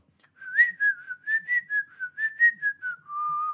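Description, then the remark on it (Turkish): A person whistles a tune, a clear, continuous pitched line rising and falling through a sequence of short notes and ending on a sustained lower tone, with no talking. “Bu hangisi? Bu işte ıslık çal.”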